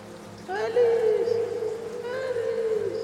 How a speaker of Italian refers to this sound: E di chi è questa voce? Ah, qualcuno sta gridando.